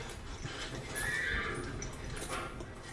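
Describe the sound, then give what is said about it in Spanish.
A horse whinnies loudly for about a second, its shrill neigh rising above a steady background of hoof clatter and noise, with no one talking. “Espere, espere, retiene el caballo que parece que está soltando la lengua.”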